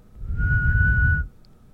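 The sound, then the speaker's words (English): A person whistles one steady, sustained note, named as G, for about a second, clear, with a low rumble of background noise underneath and no talking. “Do you know how to whistle or no?”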